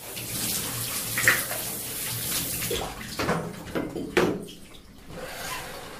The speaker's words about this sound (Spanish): Un instante antes de que llegara a la puerta del baño, Cesó el ruido del agua.